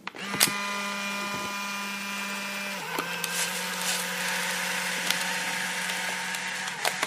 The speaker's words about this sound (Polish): pozwólcie, że zanim cokolwiek o tym powiem, przywołam dźwięk, który możecie znać. Oto uruchamiam właśnie aparat błyskawiczny, aparat instant i wykonuję zdjęcie.